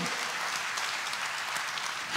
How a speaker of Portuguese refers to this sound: Quem está aqui para exaltar o nome do nosso Deus? Levanta tuas mãos e aplauda a Ele de toda a tua vida, de todo o teu coração.